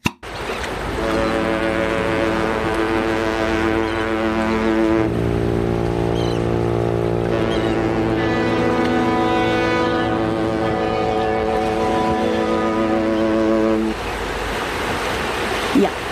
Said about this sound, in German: ich mache uns jetzt einfach zum Trost mal ein Konservenglas Hafenstimmung auf